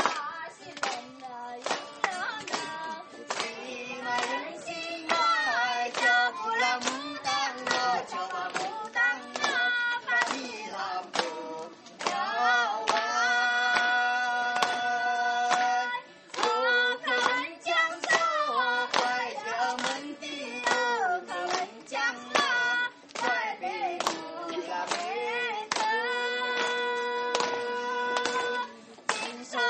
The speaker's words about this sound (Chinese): 好吧，朋友们，我们的掌声不要停下来，好吧？但是跟跟着他们的歌声呢，一起拍拍手。